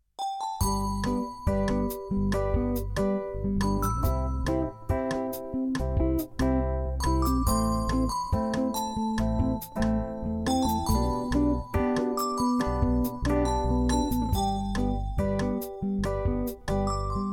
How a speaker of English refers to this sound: Now, before we learn more, it's time for our theme song.